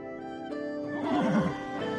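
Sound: horse neighing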